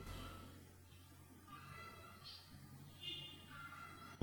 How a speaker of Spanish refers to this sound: Oficialmente tenemos un concierto allá afuera de pajaritos. A ver si lo oyen.